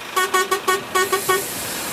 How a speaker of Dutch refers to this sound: De bus van NPO Radio 1 is aangekomen in Utrecht voor een hele speciale uitzending